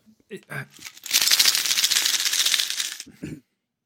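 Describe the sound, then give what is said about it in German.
Loose small-change coins, collected over the last half year, rattle and jingle out of a wallet in a dense, continuous clatter lasting about two seconds, fairly loud, with brief bits of speech just before and after. “das ist Münzgeld, falls du es nicht erraten hast.”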